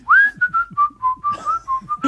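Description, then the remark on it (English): Someone whistles a cheerful Christmas carol tune, a quick run of clear, bouncy notes with a steady rhythm and no talking. “Now that you do it, it's a good whistling song, right?”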